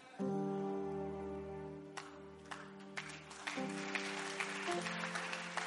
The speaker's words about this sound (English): Increase that clap offering, please. Increase that clap offering, please.